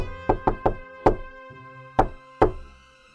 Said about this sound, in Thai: หลังจากที่แม่แพะได้ออกไปไม่นาน ก็ได้มีเสียงเคาะประตู ก๊อกก๊อกก๊อก